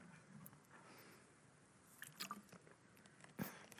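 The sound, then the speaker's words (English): Quiet sips of water with a few soft, wet mouth clicks and a brief slurp near the end, against faint background hiss and no speech. “I'll let you read that while I have some water.”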